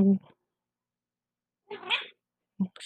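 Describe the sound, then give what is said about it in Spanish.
A female cat meows and whines in three short, plaintive calls, the middle one longest and most drawn out, with silent gaps between them. “quejidos de una gata chillona, se debe a que este ejercicio lo hago directamente sin edición.”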